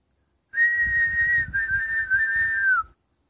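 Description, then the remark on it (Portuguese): A person whistles in imitation of a bird's song: one steady, mid-high tone with a slight warble and a brief break midway, ending in a short falling glide. No one speaks. “E o outro passarinho cantava.”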